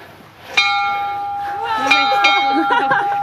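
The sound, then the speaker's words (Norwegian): A farm's lunch bell rings out, calling the workers to their daily lunch together, with a sharp strike and a long, steady ringing tone that sustains throughout, while people talk over it. “Er det matklokka deres?”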